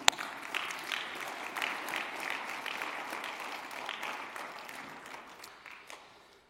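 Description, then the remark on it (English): An audience claps in steady, dense applause during a morning service, showing appreciation for the choir, accompanists and sound and media crew. It swells early, holds for several seconds, then gradually thins and fades out. “Should we, can we show them our appreciation this morning?”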